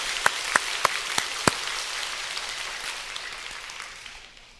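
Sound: audience applauding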